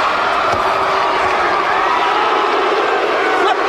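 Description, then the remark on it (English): A large wrestling arena crowd roars with sustained jeering at the wrestlers whenever they get offense in, a dense, loud wash of many voices that holds steady throughout without breaks, with a few sharper shouts poking out of the din. “These, these, this crowd is letting them have it. Every time they get any offense in, they're just shitting all over them”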